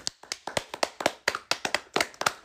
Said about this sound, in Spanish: Un aplauso, carnal.